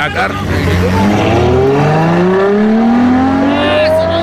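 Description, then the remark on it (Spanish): A car being stolen revs and accelerates, its pitch climbing steadily through the gears as it pulls away, loud and continuous with faint voices underneath. “¡Güey, ¡Le robaron el carro”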